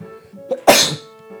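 A single loud sneeze bursts out after a brief sharp intake of breath, then trails off quickly into quiet with a faint steady hum.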